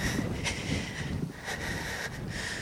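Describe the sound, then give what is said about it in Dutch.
Strong wind buffets the microphone in a steady, rumbling roar, with gusty low thumps and brief hissing surges, on a raw, cold day at a migrant camp on the edge of a residential area in Calais, France. It is loud, and no one speaks. “Het waait hard vandaag. Het is guur weer.”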